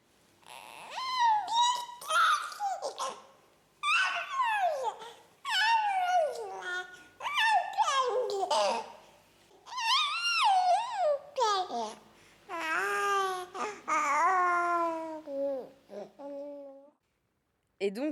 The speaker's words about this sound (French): Je pense que le bébé est, vraiment un, exemple en termes d'inspiration aussi sur la, liberté euh, d'expression sonore. quoi. C'est toujours assez fascinant d'écouter les, les, tout petits enfants jouer avec leur bouche, avec leur langue